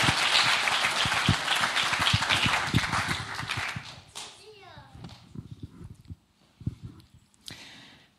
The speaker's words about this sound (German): Äh, von dem her, lassen Sie mal noch einen großen Applaus